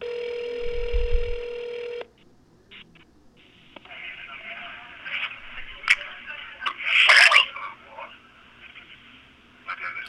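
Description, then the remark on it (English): A telephone call being placed: a steady ringing tone sounds for about two seconds, then cuts to a thin, crackly phone line with faint muffled noises and clicks. “But this time, someone else picked up the phone.”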